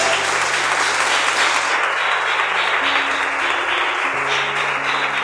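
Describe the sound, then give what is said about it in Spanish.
An audience applauds steadily and loudly for several seconds, a dense wash of clapping, while low sustained keyboard notes shift pitch underneath. “Denle un aplauso, señor hermano, en esta hora.”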